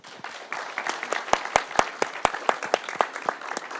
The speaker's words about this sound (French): Et tout le groupe mérite vraiment vos applaudissements.